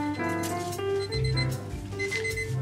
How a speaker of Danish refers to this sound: Ej, nu ringer mit ur.